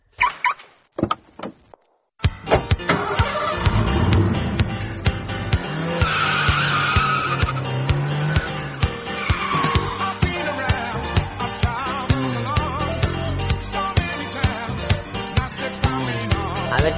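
A loud race car roars and skids, its tires squealing in long screeches over a sustained engine drone, continuous after a few brief clicks at the start, with no talking.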